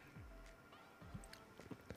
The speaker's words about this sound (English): Is I'm the king of subtlety as I take a sip from our sponsor, Coca Cola. So refreshing, keeps the polar bears alive.